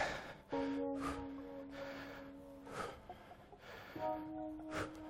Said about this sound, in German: Kommen wir schon zum nächsten Kombipäckchen. Und gut schnaufen dazu.